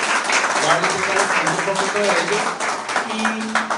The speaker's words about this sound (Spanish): que les pido un fuertísimo aplauso, unos empresarios muy exitosos.